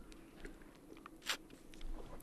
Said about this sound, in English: Sorry, I'm just taking a sip of water. My throat's a bit dry.